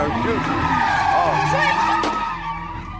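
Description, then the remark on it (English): Tires squeal continuously as sports cars spin donuts at high speed at a night-time street-racing car meet in Chicago in October, engines revving loudly, with a crowd's voices shouting faintly underneath. “Social media footage showed sports cars spinning donuts at high speed.”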